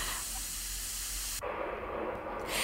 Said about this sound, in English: Can you hear that reaction going on? It sounds super fizzy and the pressure is starting to build in the bottle